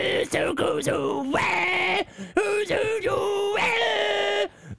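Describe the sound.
A voice imitates the guttural vocals of a death metal band's vocalist, loud, with a series of rough growling bursts and drawn-out strained tones that slide in pitch, with short breaks between them.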